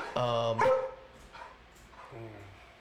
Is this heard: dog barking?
yes